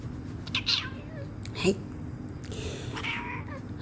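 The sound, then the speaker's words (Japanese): A cat named Kaede meows a few times in short bursts, with brief pauses between calls over a steady low background hum. “猫の楓です”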